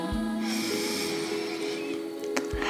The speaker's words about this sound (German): Gut, dann atmen wir noch einmal tief durch die Nase ein.